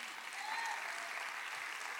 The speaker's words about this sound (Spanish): Now you clap.